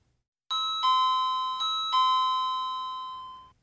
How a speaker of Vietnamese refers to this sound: Cô nhấn chuông